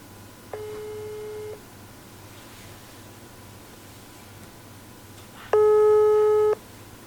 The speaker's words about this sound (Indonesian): kita coba ya. Kita coba telepon dia.